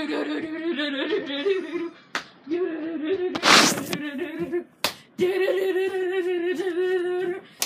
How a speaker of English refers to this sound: And she's clapping. She's clapping under her leg, mind you, friends.